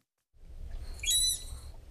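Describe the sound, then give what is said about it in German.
A manatee in the manatee pool at Nuremberg Zoo, recorded underwater with a hydrophone, gives a single short, high-pitched squeaky whistle with a slightly wavering tone, heard over a steady low rumbling background. “Dieses Geräusch würde der Biologe Lorenzo von Fersen gerne öfter aufzeichnen. Das hohe Pfeifen einer Seekuh.”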